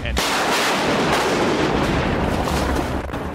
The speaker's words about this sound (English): And struck by lightning.